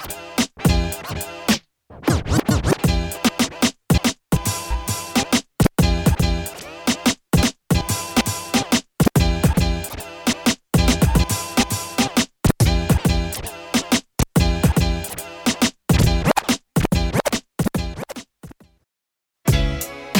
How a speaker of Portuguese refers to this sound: a batida original, manipulando os dois discos. E aí eu desconstruo e crio uma outra batida em cima dela não, não, não seria como se fosse um remix.